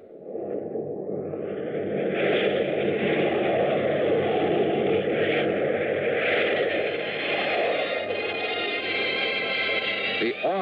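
A steady, loud airplane engine drones on without a break, a deep rumbling roar with a higher whine layered above it, while a man talks over the noise, as the plane descends at night on the glide path to the landing strip at the south end of Las Vegas, Nevada.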